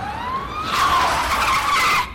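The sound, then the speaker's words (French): A fire truck arrives, its siren rising in pitch, then a loud screeching skid of tires cuts in and holds for over a second before stopping abruptly. No one speaks. “Un camion de pompiers Fantastique”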